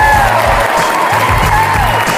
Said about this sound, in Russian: Аплодисменты. Да. Аплодисменты, да.